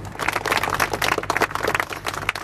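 A crowd applauds the teachers with steady, dense clapping that holds at an even, fairly loud level for a couple of seconds, with no voices standing out above it.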